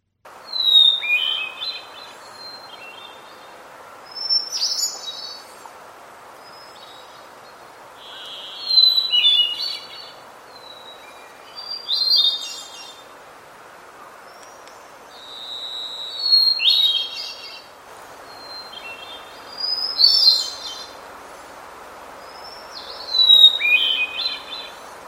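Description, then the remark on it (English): Hermit thrush song: a clear sustained opening whistle followed by a fluty, ethereal flourish, repeated about seven times with pauses between phrases, against a soft background hiss. “The hermit thrush usually just has one solid note and then um, sings its its little tune melody from there.”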